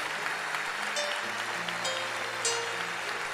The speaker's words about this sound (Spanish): Mira la cantidad de almas que vienen. Peguen un aplauso fuerte a ellos. Bienvenidos.